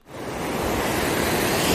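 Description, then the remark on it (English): Ocean surf washes in at a beach on a clear blue spring day, a broad hissing roar that swells quickly from near quiet and holds steady and loud, like a wave breaking and spreading across the beach, with no voices. “do you love the sound of the waves?”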